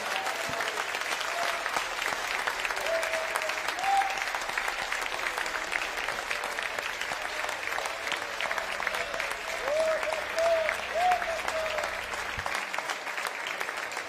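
Sustained applause from a crowd in honor of Jesus during a Spanish-language worship service, a dense steady patter of many hands clapping throughout, with faint voices calling out and a low hum underneath.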